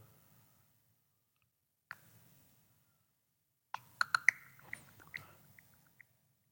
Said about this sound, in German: Der hat einen Würfelsound gemacht. Der Würfel zeigt eine 4.